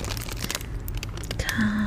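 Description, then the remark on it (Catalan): Paper made from dried tomatoes rustles and crinkles in a steady run of short, crisp crackles, fairly loud throughout, with a brief low tone appearing near the end. “Després us porto aquest paper”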